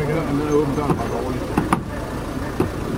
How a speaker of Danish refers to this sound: Jeg vil bare høre, hvorfor den går i tomgang, bilen.